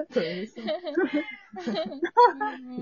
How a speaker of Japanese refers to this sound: いやー、やっぱり、なんか猫ちゃんめっちゃ激しい。めめっちゃ同意してる。